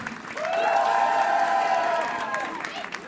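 A crowd at a France Inter radio concert bursts into sustained applause and cheering for the singer's DJ and pianist, with high whoops and shouts rising over steady clapping for a few seconds before easing slightly.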